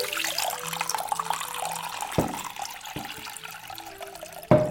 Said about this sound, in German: Ich baue die Arktis. Ich gieße jetzt in die Schüssel die ich hier habe vor mir. Wasser rein.